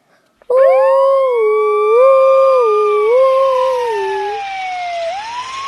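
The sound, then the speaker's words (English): A fire truck siren wails loudly as the truck speeds out of a firehouse, its tone rising and dipping in slow steps for several seconds before gliding down at the end, with no one talking. “The sun screamed and the light flashed. The truck turned right.”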